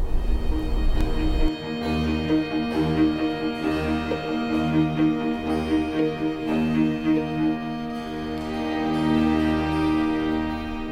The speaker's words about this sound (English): As we listen to winter's last snowfall fading away, the players pluck at their violin strings, imitating the rhythmic renderings of rain and the return of springtime's showers.